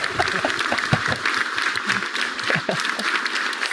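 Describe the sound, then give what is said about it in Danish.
Steady applause from a crowd, a dense crackle of many hands clapping at an even, sustained level throughout, with no voices standing out. “Jeg synes, vi skal have bifald.”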